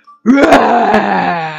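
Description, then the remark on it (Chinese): A person imitates the lion's roar in the story The King of the Forest, as the lion claims to be king of the animals: one loud, sustained, throaty cry that starts abruptly and holds for over a second, its pitch sagging slightly as it fades. “狮子说：“ 我要成为你们的王！听听我的咆哮！”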